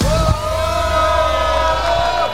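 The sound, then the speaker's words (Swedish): A crowd cheers and yells loudly at the MC-mässan motorcycle fair in Stockholm Älvsjö, at Indian's stand, with one strong sustained shout held steady over the roar for about two seconds. “Så låter det på MC-mässan Stockholm Älvsjö när vi nu ska sända Knutterspodden live ifrån Indiens fantastiska monter.”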